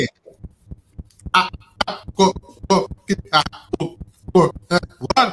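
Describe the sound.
A steady, rapid train of low thumps pulses like a heartbeat through a glitchy, cutting-out audio feed during a sound test, continuing beneath bursts of people talking.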